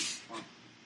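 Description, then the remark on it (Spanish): A quick, breathy sneeze: a sharp hissing burst of air followed by a softer second puff, fairly quiet, with no talking around it. “¡Salud!”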